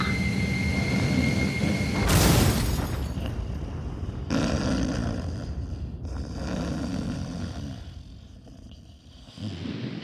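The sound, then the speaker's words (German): A loud, steady airplane engine roar on a flight from Hannover to Würzburg fills the whole stretch, a dense rumbling drone with a brief whooshing surge early on and a slight dip in intensity near the end. “schön Urlaub äh, mit dem Flugzeug”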